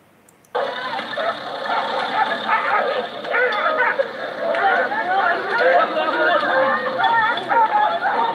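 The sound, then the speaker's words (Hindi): A dense, chaotic burst of snarling and barking from dogs fighting erupts after a brief quiet start, loud and continuous, with overlapping yelps and growls as several animals scuffle. “कुत्ते लड़ रहे हो ना तो कभी बीच में नहीं पड़ना चाहिए”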